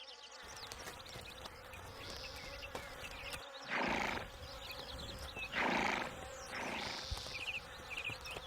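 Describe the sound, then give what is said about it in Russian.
An old horse, shod with steel horseshoes and let out to graze on a meadow, gives a few short, breathy snorts or whinnies against a steady background of buzzing insects and faint bird chirps. “Пашкадаваў господар коня падкаваў яго сталёвымі падковамі ды пусціў на луг адпасвацца.”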